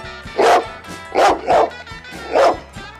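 A dog barks four times, loud and sharp, with an irregular rhythm: one bark, then a quick pair, then a final bark after a pause. No one talks.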